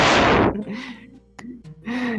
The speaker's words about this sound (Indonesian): Eh itu yang nafas dikondisikan dulu.